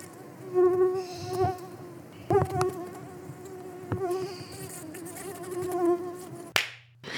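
A mosquito buzzes, a thin, steady whine that wavers slightly in pitch for several seconds, with a few soft taps along the way, then stops abruptly near the end.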